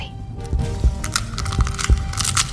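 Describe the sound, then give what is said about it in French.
A dinosaur egg cracks open as a baby dinosaur hatches, in a series of brittle snaps and crinkling crackles, several sharp breaks spaced irregularly over a couple of seconds, with no voices. “L'œuf était en train de s'ouvrir, tout doucement.”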